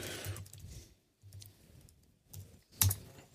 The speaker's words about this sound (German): Ich hoffe, ihr habt nicht am Tippen erkennen können, wie mein Passwort lautet.